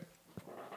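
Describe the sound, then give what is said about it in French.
A couple of short, faint dog noises, soft whimper-like sounds spaced a fraction of a second apart, with quiet background rustle and no one talking. “fait que s'il y a des sons, c'est ma chaise ou mon chien.”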